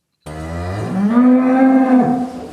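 A single long cow moo, loud, rising in pitch and holding steady for about two seconds before trailing off. No one speaks.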